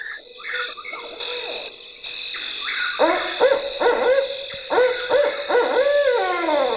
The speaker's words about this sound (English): its mnemonic is Who Cooks for You? Who Cooks for You? And if it's a barred owl from the south, sometimes it says, who cooks for you all? So listen and see if you can. Who cooks for you all?